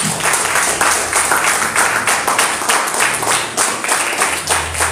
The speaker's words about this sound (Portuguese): Em nome de Jesus, aplauda o Senhor. Bem forte.